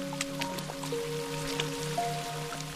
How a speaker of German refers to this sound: Immer wieder springt ihr dabei in Pfützen, von einer in die nächste. Was für ein Spaß!